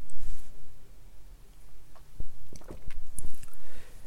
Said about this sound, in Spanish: perdón por tanto tomar café, pero me encanta el café, sorbo.